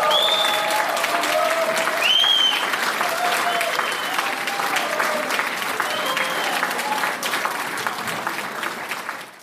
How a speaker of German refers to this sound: Also zum Beispiel, ähm, ja, keine Ahnung, der Nachbarin geholfen, die Einkäufe nach Hause zu tragen und dann drücke ich auf Bestätigen und dann kommt nochmal dieses Geräusch. Applaus, Applaus, Applaus, Applaus.